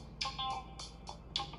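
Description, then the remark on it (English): Rapid electronic beeping repeats in a steady rhythm, about six short bright pulses in under two seconds, fairly quiet over a low background hum, with no voices. It is a truck's low air pressure warning, going off even though the air pressure is fine. “Apologies about the beeping in the background.”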